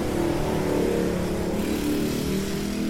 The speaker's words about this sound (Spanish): Disculpen a las motos, son muy comunes aquí.